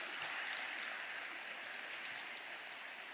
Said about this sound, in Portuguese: Você pode aplaudir ao Senhor nessa manhã. Aleluia.